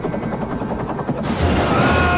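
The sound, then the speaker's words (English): A helicopter's rotors thump in a steady, rapid chop, then the noise swells into a louder, denser roar. No voices are heard. “Helicopters. There's no helicopters in Viking times.”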